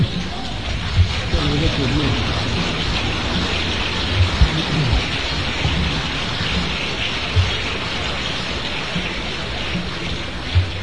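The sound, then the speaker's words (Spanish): An audience applauds in a dense, steady wash of clapping that holds at an even loudness for about eleven seconds, with faint voices mixed underneath. “Esos aplausos, hermanito, esos aplausos se los dedico al Divino Padre, hermanitos.”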